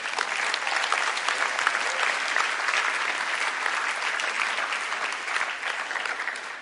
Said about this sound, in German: Den Applaus habt ihr schon bekommen. Wir geben ihn nochmal einen.